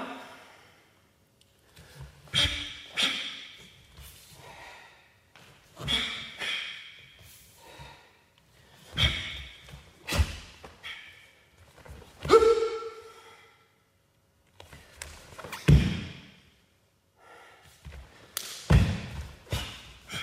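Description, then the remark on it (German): A karate athlete's sharp, forceful breaths and snorts accompany a series of irregular strikes and thuds, his steps landing sometimes hard, sometimes softer on the sports hall floor, with short pauses between bursts of effort. “Also man hört in dieser Aufnahme halt sehr die Atmung des Sportlers, man hört seine Schritte, die mal stark, mal weniger stark auf den Hallenboden schlagen.”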